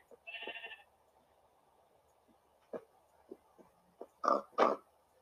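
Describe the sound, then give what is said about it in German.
Many pigs oink and grunt in scattered short bursts, the loudest close together near the end, after a brief higher squealing call at the start. Nobody speaks. “Wir haben zwei Schafe, ziemlich viele Schweine.”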